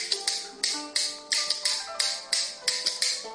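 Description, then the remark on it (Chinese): Sharp wooden clacks from Chinese kuaiban clapper boards beat out an uneven mixed rhythm, also called the train rhythm, about a dozen crisp bright strikes with brief ringing between them and no voices. “右手原则上拿大板。基本点的节奏就是单点，我们听一下声音。”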